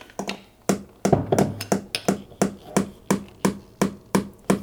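A steady series of about a dozen sharp hammer blows, a nail being driven into a wall at a quick, even pace to hang a calendar. The strikes are clear, with no talking.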